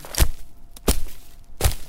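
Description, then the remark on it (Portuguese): Three heavy stamps of feet on a floor, each a deep, booming thud spaced out in a slow, slightly uneven rhythm, with quiet gaps between and no voices. “Tudo isso influenciou as pessoas a explorarem também os sons que seus próprios corpos produziam, como o barulho das palmas, dos pés batendo no chão”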